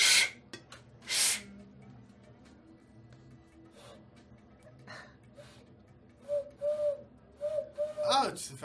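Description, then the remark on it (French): A person imitates an owl call as a signal, with a few short, breathy hooting tones in quick succession, after a stretch of quiet background noise and scattered hisses. “Tu sais pas faire la chouette”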